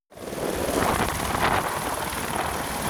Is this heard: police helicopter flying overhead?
yes